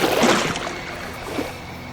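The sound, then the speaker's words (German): Bloody chunks of meat are tossed into water, landing with a loud splash at the start and a smaller splash a moment later, over a steady wash of sloshing water. “Die werfen blutige Fleischbrocken ins Wasser.”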